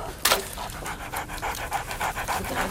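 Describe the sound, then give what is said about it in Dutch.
A dog pants rapidly and steadily, a quick rhythmic series of breathy huffs continuing throughout, with a brief sharper burst near the start. “Hou die hond weg.”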